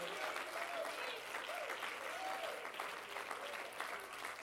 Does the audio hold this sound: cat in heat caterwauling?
no